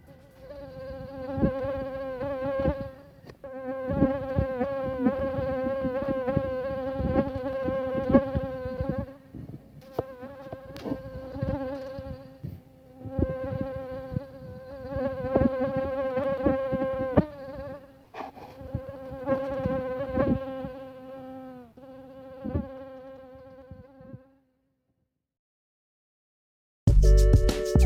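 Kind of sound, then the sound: insect, mosquito buzzing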